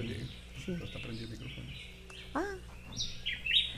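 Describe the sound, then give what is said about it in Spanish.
Several sharp calls of a Puerto Rican woodpecker (Melanerpes puertorricensis) ring out, including a loud high squeaky note near the end, over a low murmur of background noise. The calls are irregularly spaced. “Este, estamos escuchando el pájaro carpintero de Puerto Rico. Melanerpes puertorricensis.”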